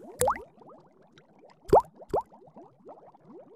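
Water bubbling and blubbering out of a tub and a well in a steady stream of small rising gurgles, with three louder plopping bursts standing out, fairly quiet overall.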